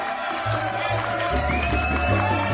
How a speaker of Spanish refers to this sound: Así que un aplauso para este hombre que, que la verdad que, aplauso por favor